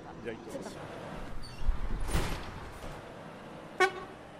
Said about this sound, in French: il faut tester, il faut, être sûr que le klaxon fonctionne. il fonctionne.